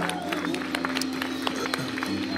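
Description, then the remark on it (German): A church audience applauds the band with dense, steady clapping at a fairly even level, over a low constant hum and faint murmuring voices. “Oder wollen wir denen nochmal einen Applaus geben?”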